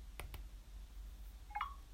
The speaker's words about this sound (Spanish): ahora sí me ha reconocido el Face ID, ¿ves? Y ha hecho crack.